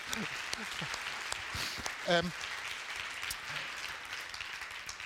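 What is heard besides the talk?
audience applause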